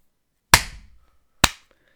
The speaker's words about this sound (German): äh, klatschen bei 40.